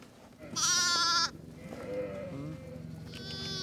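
A loud, wavering sheep bleat rings out, followed by softer lower bleats and a higher lamb-like cry toward the end, from a herded flock of black sheep and lambs, with a faint hum of background noise throughout.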